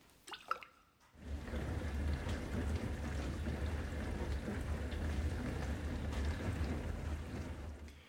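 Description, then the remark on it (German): A dishwasher running: a few soft clicks and drips, then a steady, loud wash of spraying water over a low motor hum that continues without a break. “Oder auch hier diese Spülmaschine.”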